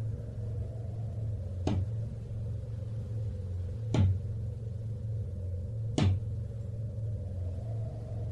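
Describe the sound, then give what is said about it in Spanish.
Three sharp knocks on a door, spaced a couple of seconds apart, each a single dull thud rising above a steady low hum. No one speaks. “Un ruido lo volvió a despertar, el mismo que había escuchado la noche anterior. Esta vez pudo reconocerlo. Alguien estaba tocando en su puerta.”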